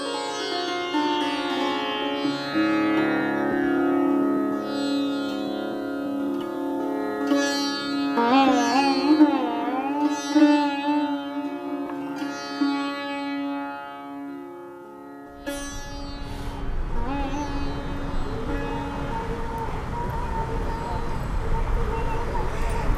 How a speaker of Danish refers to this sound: Og til sidst der skal vi lytte til en optagelse med en morgenstemning fra Ganges Breder, som jeg lavede, da jeg for cirka 10 år siden sammen med min søn